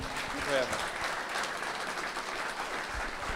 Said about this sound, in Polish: Wielkie brawa dla chłopaków.